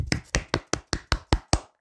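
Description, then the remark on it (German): Eight sharp hand claps in a quick, steady rhythm, about five per second, each a crisp snap at even loudness, with no voices over them, applauding Maggie Smith's playing of McGonagall. “Nochmal Applaus.”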